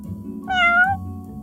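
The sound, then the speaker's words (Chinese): A single meow from a big patterned cat, about half a second long, bright and fairly high-pitched with a slight rise and fall, sounding clearly over a low, steady background rumble. “咦，这不是我在菜园里见过好几次的大花猫吗？”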